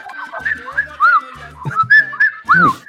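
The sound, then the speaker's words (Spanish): A cell phone's whistle-style notification tone chirps several times in quick succession, rising and falling sweeps, alongside short low buzzing bursts of the phone vibrating, fairly loud. “Así, me silba mi celular, no puedo dormir, cada rato está así vibrando, ya mi culo vibra así ya también, cada rato ya, a dormir carajo, no jodan ya, basta.”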